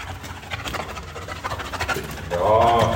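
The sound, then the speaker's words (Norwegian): Ahil, a ten-month-old Belgian shepherd puppy training as a mine dog with Norsk Folkehjelp in Sarajevo, Bosnia, sniffs in quick, breathy bursts and pants while searching for a small hidden dog toy; soft rhythmic huffing grows louder toward the end, with a brief voiced whine-like tone near the close. “Med den svarte snuten forsøker ti måneder gamle Ahil å sniffe seg fram til ei lita hundeleike som hundetreneren har gjemt bort.”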